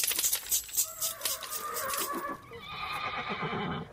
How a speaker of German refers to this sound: Da steht ein nachgebautes Pferd mit so einem Geräusch wie ein echtes Pferd. Und da ist auch so ein Stall nachgebaut mit Sattel.